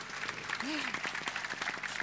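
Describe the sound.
A short burst of applause from a small group, dense irregular clapping that stays steady for about two seconds, with a brief voiced sound rising and falling partway through.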